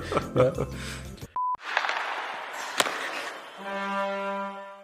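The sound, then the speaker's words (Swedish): A short produced bumper jingle follows a moment of talk: a sharp electronic beep, a burst of noisy whooshing texture with a snap, then a sustained, humming synth chord ringing out. “Släng på mörkt... bumper, vi måste lämna Västervik.”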